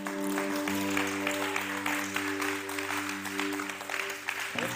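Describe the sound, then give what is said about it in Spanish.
An audience applauds the Lord during worship, a dense wash of clapping that holds for several seconds, while a sustained low organ or keyboard chord hums underneath. “Le das un fuerte aplauso al Señor.”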